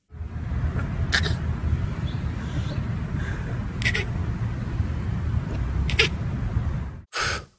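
A lion cub tries to roar for the first time, letting out several short, raspy bursts roughly two seconds apart over a steady low rumble, ending with a slightly louder final burst.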